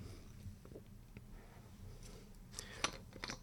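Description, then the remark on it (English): A few soft sips of water and small wet slurping clicks from someone drinking, with a sharper gulp near the end, amid quiet. “Quick sip of water, boss.”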